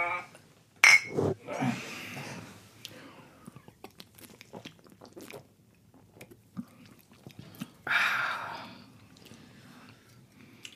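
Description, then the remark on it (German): Glasses of Oberdorfer Helles beer clink together once in a toast, a sharp bright ring near the start, followed by quiet sipping, swallowing and small mouth noises, with a soft breathy rush partway through. “Ja, chin Chin.”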